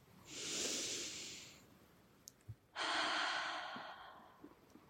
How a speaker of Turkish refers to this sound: Nefes al, ağzından ya da burnundan rahatça boşalt. Bir kere daha nefes alıp ver.